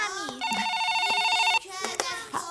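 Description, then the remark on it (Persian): A telephone rings in one steady, buzzing electronic burst lasting about a second, fairly loud, with a child's and other voices talking around it. “من تلفن رو جواب بدم”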